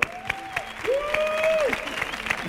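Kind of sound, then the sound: crowd, studio audience applause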